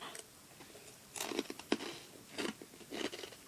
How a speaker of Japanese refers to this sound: ラスクが口に入ってねもぐもぐしてますけど、うん、ラスク美味しいおいしい、ね、食べてるうんすんげえ食べてる